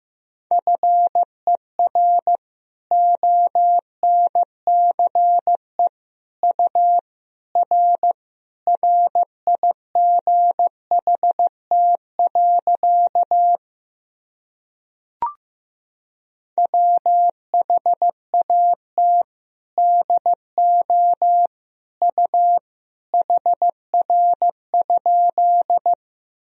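Steady Morse code beeps at a single mid pitch, keyed in quick dots and dashes at an even 15 words per minute, sending sentences built from common words and abbreviations, with a short silent break and a faint click midway. No voices.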